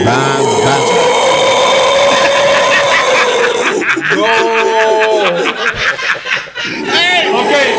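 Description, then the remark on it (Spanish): Someone imitates the calls of howler monkeys (congos) heard in Puerto at 5 in the morning, with loud, throaty, unbroken roaring that rises and falls, settles into a long held tone, then breaks into a few rough, breathy bursts. “Esos son los congos en Puerto si usted ah, está así, en Puerto a las 5 de la mañana, ¿suena qué?”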